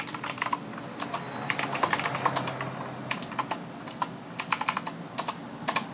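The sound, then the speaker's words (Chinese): Rapid, clacky typing on a mechanical keyboard, with bursts of sharp keystrokes separated by brief pauses, fairly loud with no voices. “我这个声音很大哦，因为我先用机械键盘。”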